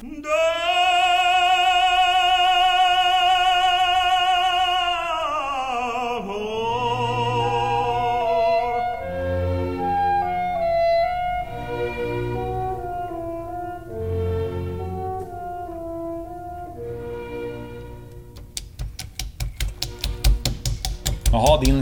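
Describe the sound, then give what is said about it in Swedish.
Roasted hazelnuts are crushed in a stone mortar: a rapid series of sharp, dry cracking clicks in the last few seconds, following a sustained hummed tone and a stretch of talking. “mortla våra små hasselnötter, lägga upp på en tallrik”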